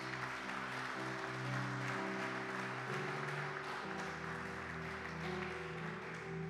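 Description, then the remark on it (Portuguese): A crowd breaks into sustained applause for Christ Jesus, a dense, steady wash of clapping that stays loud throughout, with held musical chords sounding underneath. “Se você encontrou, dê uma salva de palmas a Cristo Jesus.”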